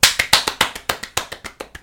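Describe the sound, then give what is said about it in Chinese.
Brisk hand clapping in welcome, about a dozen sharp claps in a fast, steady rhythm, each one crisp and bright with a quick decay, with no voices. “掌声欢迎。”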